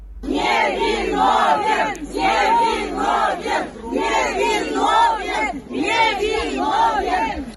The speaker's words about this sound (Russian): Ну и вот толпа сторонников, э, что они кричат, давайте услышим.